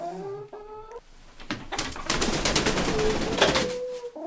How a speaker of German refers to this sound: sind nur zwei Hühner. Äh, wir hatten drei, die andere haben wir geschlachtet und den Hahn auch.